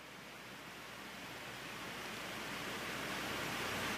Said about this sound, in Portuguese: Mas se eu falo assim, ó, escuta o ar-condicionado. A gente faz silêncio e a gente só escuta o ar-condicionado.